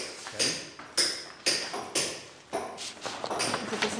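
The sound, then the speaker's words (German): Someone knocks on a newly made stone to test whether it is sound: five sharp, bright raps about half a second apart, followed by a quicker run of lighter taps. No one speaks. “Und wenn ich jetzt da drauf klopfe, also da ist er gesund und da, dann hört man das.”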